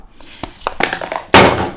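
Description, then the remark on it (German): A mobile phone is fumbled with a few light taps and knocks, then accidentally drops onto a surface with a sudden loud clattering thud that quickly fades. “Das war keine Absicht von mir, mein Handy ist runtergefallen.”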